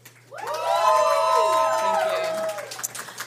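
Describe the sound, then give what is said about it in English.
A live audience erupts in loud cheering and shouting to vote, many overlapping voices rising quickly and holding for about two seconds before tapering into scattered yells. “Usually we vote amongst ourselves, but given that there are a bunch of people here, uh, we will allow them to make noise and fair.”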